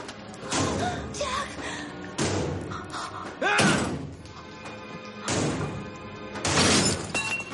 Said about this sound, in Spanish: Max, furioso, embiste contra la puerta tratando de desencajarla. Mientras, Julia rompe una ventana y arranca una tabla que la obstruye.